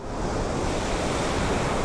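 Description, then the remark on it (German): Loud, continuous roar of stormy waves churning on a lake under strong gusting wind, a dense, unbroken wash of surf noise with no voices. “Und auf diesem See kommen die Jünger in einen gigantischen Sturm.”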